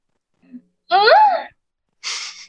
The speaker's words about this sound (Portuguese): Eu tenho aqui também comigo ela, a tremenda gostosa, atriz, comediante, …, que não vai me dar oi, ela vai me dar um gritinho que eu gosto de ouvir.